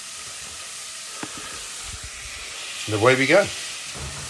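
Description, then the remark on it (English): A steady sizzle of hamburger meat frying in a pan fills the whole stretch, a soft continuous crackle, with a man briefly speaking over it near the end. “You can hear it uh, cooking away there.”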